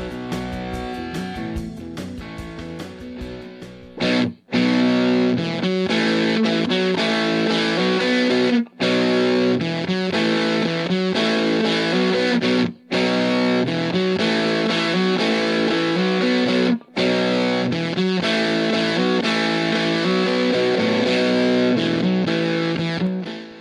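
A loud rock song with distorted electric guitar riffs over a steady driving beat, starting with sparse chords before the full band kicks in, broken by a few brief silent gaps.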